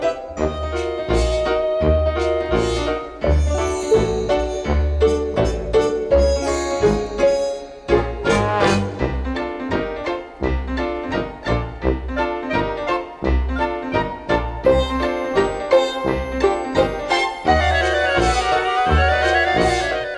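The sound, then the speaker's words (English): Spooky orchestral film main-theme music plays steadily, with bouncy low tuba bass notes pulsing underneath and quick woodwind runs swirling above, ending in a rising, swooping flourish. No one speaks. “Listen to that cool orchestration. It reminds me of spooky wind howling during those woodwind runs.”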